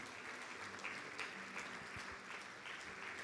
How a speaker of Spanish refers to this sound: Dele fuerte el aplauso.